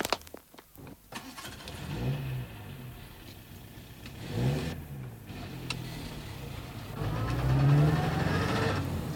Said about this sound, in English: Hop in the car. We've got some shopping to do in town before we go home.